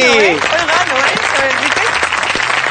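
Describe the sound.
An audience bursts into loud, sustained applause, a dense wash of many hands clapping at once, with a few voices whooping and cheering over it at the start.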